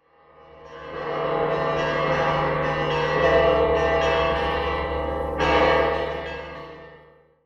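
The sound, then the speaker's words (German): The several bells of the Church of the Holy Sepulchre peal together in a dense, overlapping wash of ringing tones, swelling in after a moment and sustaining loudly before fading away, with no voices present. “Ja, das ist in der Tat das Geläut der Glocken der Grabeskirche.”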